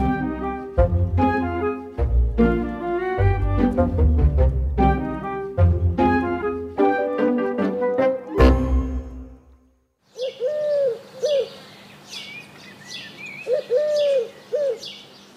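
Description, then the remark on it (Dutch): After about ten seconds of music, a bird's courtship call rings out from a tree: a few clear, hooting notes in short bursts, over a low steady hum. “Als ik dit geluid hoor in een boom in Borgerhout, dan is er iets aan de hand. Ja, dan is, eh, dan is love in the air.”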